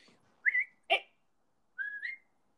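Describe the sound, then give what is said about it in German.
A person whistles in short bursts to call a dog back: a rising two-note whistle, a brief sharp chirp, then another upward-sliding whistle after a pause. Clear and fairly loud, with no talking. “jetzt muss ich mir in den Hund ranpfeifen.”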